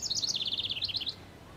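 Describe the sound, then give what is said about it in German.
A rapid, high-pitched bird song of repeated chirping notes trills steadily for about a second, then stops, leaving faint background hum, with no talking. “Zuerst muss ich diese Vogelstimmen aufnehmen und dann sehen wir.”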